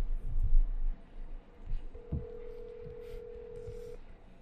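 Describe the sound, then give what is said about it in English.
A telephone keypad tone sounds as someone places a call, one steady electronic beep held for about two seconds, fairly clear, over low background rustling and a few soft thumps. “Let me make a call. See if if we can get anyone.”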